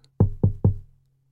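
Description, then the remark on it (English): Three soft, quiet, evenly spaced knocks on a wooden bedroom door, each a dull thud with a short resonant ring, with nothing else around them. “I'm going to have to knock on his bedroom door and just ask him. So I knock on dead quiet like that.”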